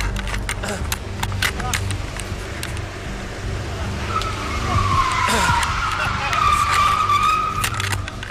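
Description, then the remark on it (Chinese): A car driven the wrong way at a roundabout in the early morning drifts with tires skidding and squealing in long, wavering high-pitched streaks over a steady low engine rumble, with scattered sharp clicks early on; the squeal grows louder toward the end. “前不久的一天凌晨，在一座环岛，一名男子开着汽车疯狂逆行，甚至玩起了漂移。”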